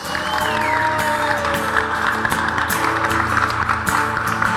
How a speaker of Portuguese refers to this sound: se ela merece uma salva de palmas, porque ela é rainha, porque ela é soberana, porque ela é mãe de Deus, pode ser melhor para ela, servos!